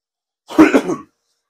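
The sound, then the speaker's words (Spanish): A short burst of throat clearing with a rough cough, fairly loud, lasting about half a second with two or three quick pulses, then silence. “Tápale tantito, Amar, por favorcito, de realme un segundito nada más y déjenme toser tantito”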